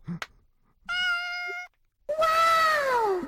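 A cat meows twice, fairly loud: a steady, level call, then after a short pause a longer meow that slowly falls in pitch. A faint click comes just before.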